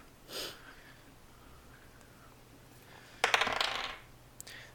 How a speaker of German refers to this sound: Und würfel jetzt meinen zweiten Angriff.